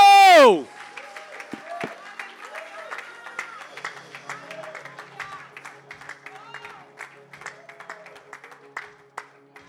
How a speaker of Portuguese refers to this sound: Aplauda ao Senhor, Ele é digno.